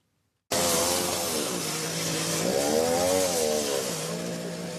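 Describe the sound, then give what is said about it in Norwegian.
A chainsaw used by firefighters to cut into the wreckage of a train collision in southern Italy starts abruptly after a moment of silence and runs loud, its engine whining steadily, then revving higher in the middle as it bites in before settling back to a steady drone. “Brannmenn kutta i togvraket med motorsag i går kveld.”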